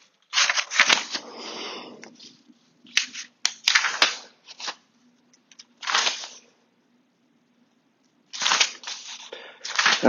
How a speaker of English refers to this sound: And we can listen to the lovely sound of pages being flipped.